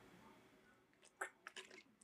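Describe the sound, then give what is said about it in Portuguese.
Someone drinks water, making a few quiet, wet sipping and swallowing sounds at irregular intervals, with no talking. “Eu vou beber um pouco da água, Luciano.”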